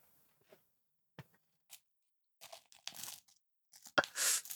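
Crinkly, crackling bursts of adhesive tape being cut, handled and torn, starting with a few sparse clicks and building into denser, louder ripping and crumpling noises near the end, with no talking; the cut tape is stuck over a person's mouth.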